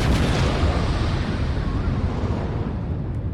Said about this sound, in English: his speech is interrupted by the sound of a resounding explosion.